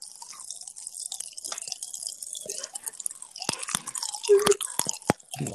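Crackling candy from a whole pack pops and snaps inside a mouth amid wet chewing, a rapid irregular stream of tiny clicks and crackles that grows busier and sharper toward the end, with no talking.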